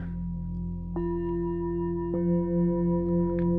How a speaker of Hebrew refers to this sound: אפילו הקערות טיבטיות פה שלידי.